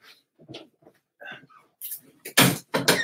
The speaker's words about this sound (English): Oh, let me close the door. Hold on.